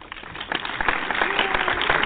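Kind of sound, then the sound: crowd, applause sound effect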